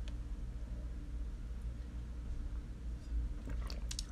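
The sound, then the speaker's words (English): A quiet sip of wine from a glass, with soft wet mouth and swallowing sounds near the end over a steady low background hum, and no talking. “hold on, I'm going to take a sip of wine.”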